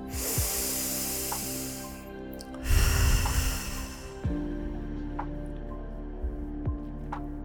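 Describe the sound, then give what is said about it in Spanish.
A long, steady, airy inhale through the nose, followed by a shorter, fuller breath pushed out through the mouth, a deep breath taken during a guided breathing exercise, with no talking, then quiet room tone. “Vamos a hacer una respiración profunda antes de pasar a la próxima vuelta, inhalando por la nariz y exhalando por la boca.”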